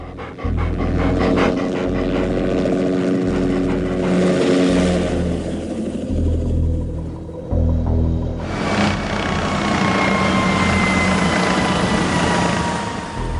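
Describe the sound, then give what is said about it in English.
A loud, continuous engine drone with a steady mechanical whir, swelling into a brighter roar partway through as a helicopter with Norwegian markings buzzes overhead in the freezing Arctic, with rapid panting sounds. “steps out into the freezing Arctic, and the other men soon join him as a helicopter with Norwegian markings buzzes overhead.”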